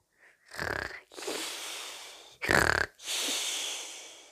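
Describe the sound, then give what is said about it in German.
A sleeping person snores in two cycles: each starts with a harsh, rattling snort on the inhale, followed by a long, breathy exhale, with no talking. “Jetzt nicht schlafen.”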